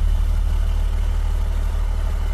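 The engine of a heavy-duty 18-wheeler truck idles steadily, a deep low rumble with a constant throbbing beat and no change in pitch.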